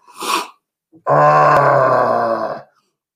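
A single sneeze: a short, breathy intake, a brief pause, then a loud, drawn-out voiced burst lasting over a second before it cuts off. It sounds groan-like and theatrical, with no talking.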